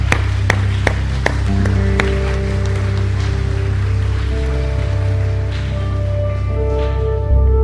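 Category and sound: crowd, audience applauding children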